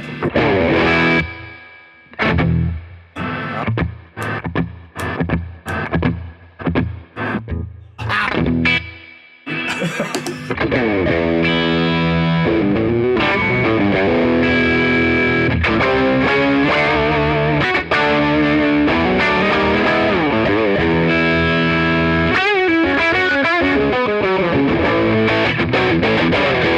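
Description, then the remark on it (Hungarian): Electric guitar through a TS10 Tube Screamer overdrive, loud: about ten seconds of short, clipped chord stabs with gaps, then continuous gritty, sustained riffing with no voices. “itt a TS10, Tessék, Ugye, az most TS10.”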